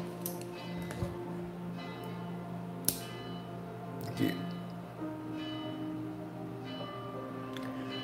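A small church bell rings with sustained, overlapping metallic tones that hum on throughout, a few sharper strikes standing out along the way, at a steady level.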